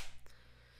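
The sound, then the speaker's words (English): A single sharp slap imitating the smack of a left front kick landing on an opponent's liver area, loud at the onset and fading quickly into a faint low hum, with no talking. “I heard that slap. That that it sounded like this.”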